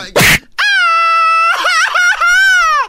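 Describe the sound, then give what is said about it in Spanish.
A sharp slap-like burst, then a loud, drawn-out theatrical crying shout with strong harmonics that breaks and wavers midway before holding again, like a sung lament, alone, at Universal Studios Hollywood. “Ahora resulta que gritan aquí llorando, ¿no? Así es en la canción.”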